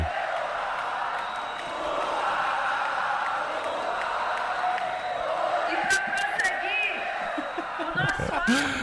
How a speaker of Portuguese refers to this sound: Ei, a torcida do União São João cantando Olê, Olê, Olá, Lula, Lula, grande Lula Pereira, técnico do União São João.